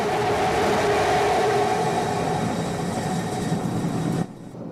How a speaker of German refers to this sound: den Moment, in dem das Starship gelandet ist, den hören wir uns mal kurz an. Da wird auch klar, wie sehr ihn das begeistert, wenn da was klappt. Two engine landing burn.